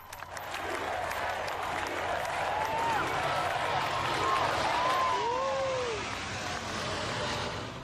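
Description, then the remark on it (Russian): A large, rain-soaked crowd of spectators at a memorial claps, squeals and cheers after a Blue Angels aerobatic team flyover, waving hats and chanting "USA", with rising whoops and shouts breaking through a dense, continuous wash of applause that stays fairly loud throughout. “Промокшие зрители визжали, хлопали в ладоши, махали шляпами и скандировали «USA».”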